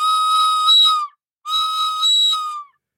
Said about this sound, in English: I hated him on sight and sound, and would be about to put my dog whistle to my lips and blow him off the face of Christmas, when suddenly he, with a violet wink put his whistle to his lips, and blew so stridently, so high, so exquisitely loud